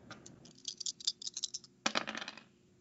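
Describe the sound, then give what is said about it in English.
A pair of dice are rolled, clattering and tumbling across a hard surface in two quick bursts of sharp rattling clicks, fairly quiet, with no talking. They land on a three and a five. “Give me a uh, give me a dove's roll with two dice.”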